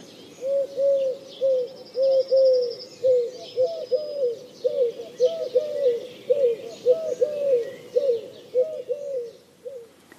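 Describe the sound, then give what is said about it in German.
A Eurasian collared dove coos repeatedly in a steady, rhythmic series of soft, hollow three-note phrases. Faint twittering from other birds sits in the background. “Türkentaube hingegen klingt ähnlich wie die Ringeltaube, aber ihr Ruf enthält drei statt fünf Elemente.”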